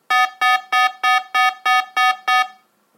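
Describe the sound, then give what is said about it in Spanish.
An ascending electronic alert tone from a radar detector: eight bright, buzzy beeps in a quick, evenly spaced series, each with a short upward sweep. Loud, with nothing else around it. “Lo puedes configurar como ascendente.”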